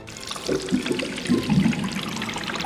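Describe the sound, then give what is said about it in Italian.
A steady, continuous jet of water pours and splashes into a hydrotherapy pool, a constant rushing hiss with gurgling swells, with no voices. “Tendenzialmente si trattava di saune o di bagni di acqua calda o fredda a seconda dei casi, acqua che riempiva delle piscine tramite un getto continuo.”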